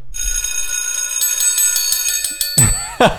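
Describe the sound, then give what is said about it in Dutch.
A bright metallic bell rings steadily for a few seconds, its sustained ringing tone fairly loud, then gives way to a brief clatter and a couple of sharper struck sounds at the end. “Even die bel erin.”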